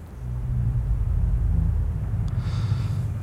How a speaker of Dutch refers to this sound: Als het waait, dan kraakt en kreunt en kermt het gebouw alsof je in de kombuis van een schip staat. De wind fluit spookachtig door de liftschacht. Laat kabels heen en weer zwiepen.